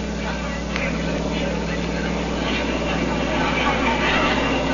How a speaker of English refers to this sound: The fighter planes were coming in, biplanes, each with two machine guns and a few bombs.